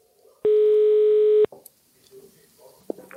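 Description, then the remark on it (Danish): A single loud, steady telephone ringing tone sounds for about a second as a call is placed to a bodega in Struer, then cuts off, followed by faint line noise and a brief click, with a voice faintly in the background. “du skal lige høre et klip, fordi vi ringede til noget, der hedder Det Lille Apotek.”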